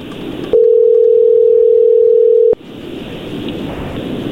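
telephone call dialing tone

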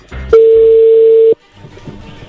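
telephone call being dialed

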